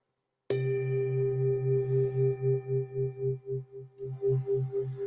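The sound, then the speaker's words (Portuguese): A Tibetan bell brought from Nepal, used for a healing meditation, is struck once with a sharp onset, then rings on in a steady, sustained tone with a low pulsing beat, the shimmer wavering as it slowly sustains without fading. “E eu vou usar o sino tibetano, que é um sino que eu trouxe lá do Nepal e que tem uma vibração de cura muito poderosa, tá bom?”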